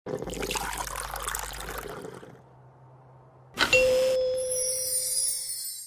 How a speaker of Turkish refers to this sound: Bu arada izninle bir bardak çay dolduruyorum.